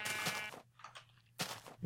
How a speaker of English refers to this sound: There's so many sheep here. I feel like they're just they're they're begging me to take their wool. Might as well Stock up.